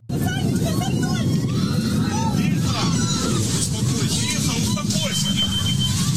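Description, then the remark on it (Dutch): Panicked screaming and frantic shouting from many people aboard an aircraft during a fire, loud and chaotic, with high wailing cries rising over a constant roar for the whole stretch. “En dan hoor je ook het gegil en de heftigheid.”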